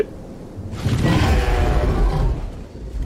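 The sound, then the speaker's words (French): A dragon roar bursts in after a brief quiet moment, a loud, deep, rumbling bellow that holds for about two seconds before easing off, with no one speaking. “sur quelle grosse bébête tu es venu Alors, moi je suis venu sur Méléis, la Reine Rouge”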